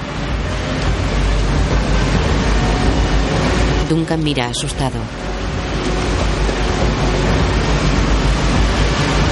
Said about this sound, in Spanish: La corriente es más fuerte. hay una cascada de unos 5 metros de altura.